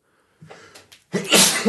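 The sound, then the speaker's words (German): A single loud sneeze: a quick breathy intake building up, then a sharp explosive burst of noise that trails off briefly. “Gesundheit! Gesundheit.”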